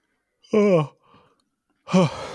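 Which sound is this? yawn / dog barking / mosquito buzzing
yawn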